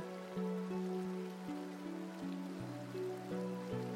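Steady, soft rain patters on a surface throughout, mixed with gentle sustained musical notes that change slowly in a calm, even rhythm. No one speaks.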